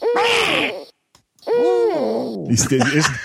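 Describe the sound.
A person imitates an owl with two breathy, wavering hoots separated by a short pause, the second drawn out and sliding downward before trailing into a rougher, throaty finish, loud.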